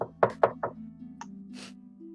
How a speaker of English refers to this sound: Knock knock knock knock on Ayla's door.